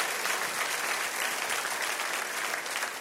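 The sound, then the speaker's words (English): A large audience at Red Rocks Church applauds the visitors steadily with dense, continuous clapping at an even, fairly loud level throughout, with no speech over it. “Guys, can we make some noise one more time for the visitors?”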